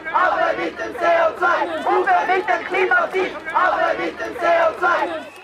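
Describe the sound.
A crowd of young climate strike protesters, skipping school or work to demonstrate for climate protection, chants in rhythmic bursts, many voices shouting together in loud, repeated phrases with brief dips between them.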